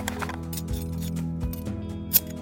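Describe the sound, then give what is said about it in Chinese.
Small scissors snip a small lock of hair from the hair ends in a few quick, crisp metallic clicks, spaced unevenly over a steady low hum, with the last snip the sharpest and loudest. “她拿出抽屉里的小剪刀，小心地剪了一小撮发尾的头发。”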